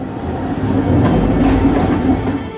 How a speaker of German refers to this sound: flatternde Schienen, glitzernde Felswände und ein kleiner offener Zug, der mitten durch einen Berg fährt.